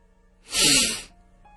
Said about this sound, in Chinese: 可就在这时，苏三吸了吸鼻子，